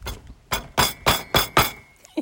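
A rock-hard, three-day-old baguette in France is rapped against a surface: six sharp, dry knocks in a steady, quick rhythm, each loud and clipped, followed by a softer tap, with no talking.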